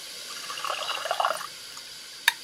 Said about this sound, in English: Next thing we're going to do is we're going to pour our ounce of lime Malibu over it.